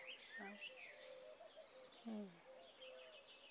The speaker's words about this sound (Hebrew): היונים, שהומות. האוויר שמלא בצלילים האלה, שבת, בבוקר.